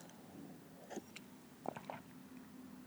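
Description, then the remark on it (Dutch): A few soft mouth sounds of someone taking a quick sip of water, with small wet gulps and clicks. “Even een slokje water voordat ik straks”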